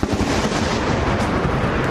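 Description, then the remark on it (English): A loud, sharp thunder crack from a lightning strike hitting a tree in Lafayette Square outside the White House, a sustained rumbling roar filling the whole two seconds with no talking. “It was a jaw dropping lightning strike right outside the White House.”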